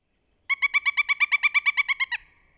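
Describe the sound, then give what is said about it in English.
A pileated woodpecker calls alone in a rapid, even series of about fourteen loud, ringing notes that end abruptly, with quiet background and no talking. “I remember when I was a new birder sometimes confusing the nuthatch song with the pileated woodpecker's call.”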